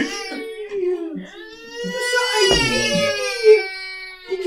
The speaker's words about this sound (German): Ein Baby schreit im Hintergrund. Aber das Baby möchte nicht nach Osnabrück. Oh, schreiende Babys möchten nicht nach Osnabrück.